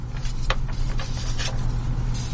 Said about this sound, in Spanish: escucha de las hojas, es porque sí trae un documento.